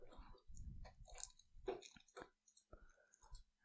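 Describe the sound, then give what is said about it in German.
Wet chewing of a soft cheese string snack, with irregular smacking and clicking mouth sounds over a few seconds and no talking, quiet. “Schnell, während ich hier meine, ja, mein Cheese-String esse.”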